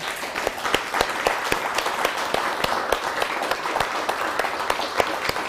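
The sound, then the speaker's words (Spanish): An audience applauds steadily for the virtual community following online, many hands clapping in a dense, crackling wash with sharper individual claps popping out irregularly, sustained at an even moderate level throughout. “Damos un, fuerte aplauso a la comunidad virtual para que sientan el abrazo, el calor, la armonía.”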